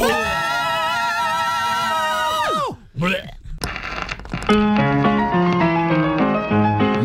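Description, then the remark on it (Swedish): People belt out a sustained, high-pitched power metal style scream for a few seconds, wavering with vibrato before breaking off abruptly; a brief pause follows, then music starts playing. “För i varje Rockhyllan-avsnitt så avslutar vi med ett tvättäkta power metal-skrik.”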